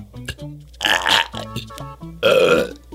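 During a live broadcast, a loud, drawn-out burp blamed on coffee rumbles up, followed by a second long belch after a short pause, both croaky with no talking.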